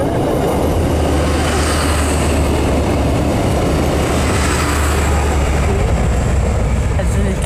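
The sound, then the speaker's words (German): A train rolls past on a railway line, a loud, steady rumble of wheels and carriages that fills the whole stretch, with faint high metallic squeals riding on top. “Ob man da lieber wohnen möchte oder nicht an der Bahnstrecke, ich finde das ja großartig.”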